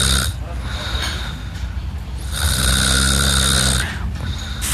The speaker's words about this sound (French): Écoutez ce bruit, c'est un ronflement. Et là, vous allez devoir me dire si c'est un ronflement d'homme ou un ronflement de femme.